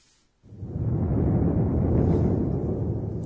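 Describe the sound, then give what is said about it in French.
A deep, continuous rumble of thunder swells in abruptly after a brief quiet moment and rolls on steadily, loud and heavy in the low range, with no voices present. “C'est le tonnerre, n'est-ce pas En japonais, on le décrit ainsi.”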